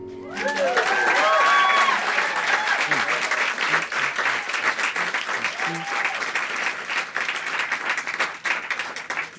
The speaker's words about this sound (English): y'all can clap